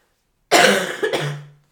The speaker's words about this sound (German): okay, Moment, ich muss, glaube kurz husten.